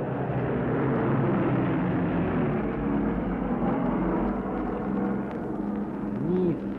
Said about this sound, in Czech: nízko, jako velmi nízko přeletěla letadla nad hřbitůvkem v Lánech.